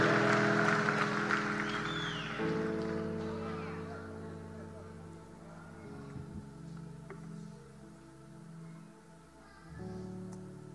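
An audience applauds and cheers for God over sustained keyboard chords; the clapping is loudest in the first few seconds, then thins out while the steady music carries on.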